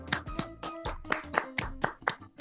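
crowd, hand clapping applause

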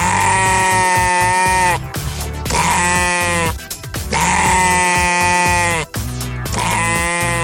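animal, sheep bleating

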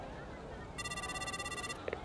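signal or alarm, telephone ringing

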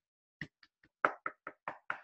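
impact, knocking on a door

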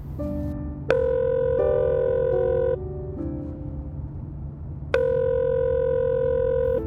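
signal or alarm, phone call ringing tone

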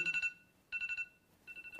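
signal or alarm, phone alarm ringing

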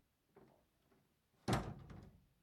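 household object, door closing

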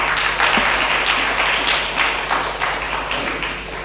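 crowd, audience applause

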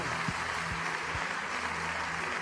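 crowd, audience applauding

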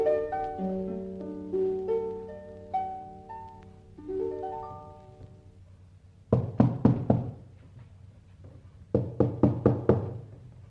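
impact, knocking on a door

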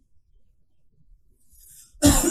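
human body sound, cough and throat clearing

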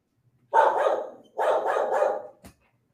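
animal, dog barking

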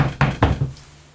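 household object, knocking on a door

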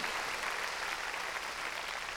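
crowd, audience clapping loudly

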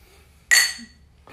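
household object, glasses clinking

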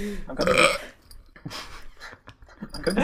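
human body sound, burp

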